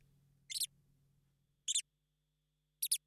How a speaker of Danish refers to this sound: Ja, så det lyder enten som nogen, der sådan krasser på deres ja. øh, flyvedragt. En blåmejse på helium. En blåmejse på helium. Men det var faktisk det var den bedste muselyd, øh, jeg kunne finde.